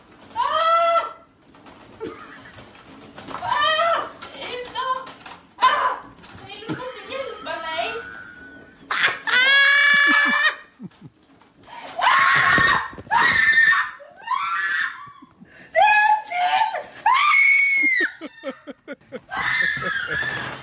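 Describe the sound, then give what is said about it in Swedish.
Frantic, high-pitched screaming in repeated loud bursts, with short gaps between the shrill cries, giving a sense of panic throughout, as people indoors react to two live, flapping crows tumbling out of an extractor duct. “Det är ju, ja, det är ju full on panikläge.”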